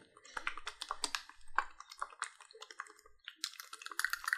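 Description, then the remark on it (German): A mate tea drink container with lemon juice inside is shaken with its hole held shut, giving fast, irregular clattering and rattling bursts with a faint watery edge, continuing for a few seconds with brief pauses. “hält jetzt das Loch zu und versucht zu schütteln.”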